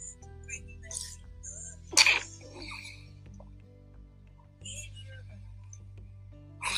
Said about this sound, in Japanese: あくしゃみ出る